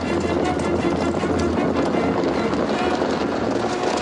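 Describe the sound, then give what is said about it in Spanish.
Police horses galloping toward demonstrators lying on the ground, in a loud, continuous rumble of hooves, the beats blurring into a dense, steady roar that holds its level for the full few seconds. “Al llegar junto a ellos, los caballos frenan y se encabritan, pero no atraviesan la masa de hombres tumbados.”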